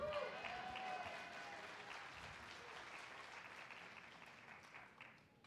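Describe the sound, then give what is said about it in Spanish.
A crowd applauds at the mention of the tithe, many hands clapping steadily in a dense, sustained wash that holds for several seconds before starting to taper off near the end, with a few brief voices and whistles rising early on. “Si pueden aplaudir cuando hablamos del diezmo.”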